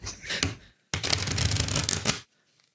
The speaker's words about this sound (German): So, so, so Karten hinfluppen. Genau. Mhm. Das kriege ich einfach nicht so hin, dass das gut klingt, aber dann muss ich wahrscheinlich wirklich so einmal so. Das, das mischen, ja.